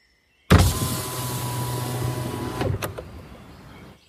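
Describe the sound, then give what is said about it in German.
A car window is wound down steadily for about two seconds, a continuous motor-like hum, ending with a soft thunk as it stops, at dusk. No one speaks. “kurbelte das Fenster herunter.”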